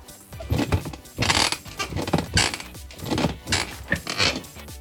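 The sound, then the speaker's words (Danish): A wooden chair creaks again and again in a run of short, strained bursts, fairly loud, with brief pauses between each groan and no voices. “Tusind tak, fordi du gad komme forbi mig og knirke i dag.”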